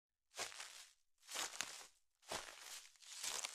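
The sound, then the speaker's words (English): Four slow, evenly paced footsteps swish and rustle through grass in a forest, coming closer, each step a soft, hissing crunch of about a second. No voices, just the steady brushing tread. “The thing behind me came closer and closer. I could hear the rustle of the grass.”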